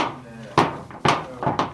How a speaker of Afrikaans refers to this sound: So hierdie is gewone sandwichseep koekieseep en uh ons moet dit ook so klein as moontlik sny. So ons sny sommer hier met 'n gewone kombuismes net ook so klein as moontlik.